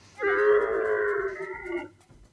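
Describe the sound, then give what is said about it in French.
A camel lets out one long, groaning bellow, a rich harmonic drone lasting over a second and a half that holds steady, then drops off abruptly. No one speaks. “Bon, on va s'écouter un chameau qui blatère.”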